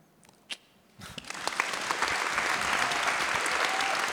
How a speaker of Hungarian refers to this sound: Köszönjük szépen, köszönjük a tapsot, ami ezeknek a csodálatos szerzőknek és az új könyveinknek szól